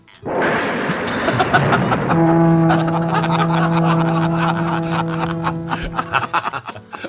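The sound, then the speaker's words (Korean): A loud, drawn-out fart inside a car with the windows closed, in minus-10-degree winter weather, opens with a rough, noisy blast, holds a steady buzzing tone for several seconds, then breaks into a few sputtering flutters at the end. No one speaks. “아, 사전 어른들이 모두 타고 계시던 차 안에서 참고 참았던 꽃분이 합창이 열리고 말았던 겁니다.”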